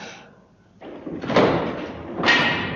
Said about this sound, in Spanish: el tener que abrir la puerta de la cripta, chirriando espantosamente sus goznes de hierro y tan pesada.